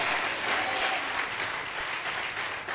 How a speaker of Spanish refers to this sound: Y si tú cifras tu esperanza en Él, no serás avergonzado. Que alguien aplauda al Señor de la Gloria. Confiamos en Dios.